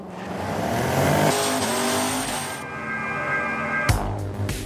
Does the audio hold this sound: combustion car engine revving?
yes